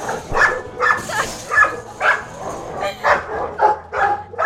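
A dog at the GetDog shelter for homeless animals barks repeatedly in a steady rhythm, about nine sharp, mid-pitched barks over a few seconds, with some yipping and whining mixed in and faint background noise.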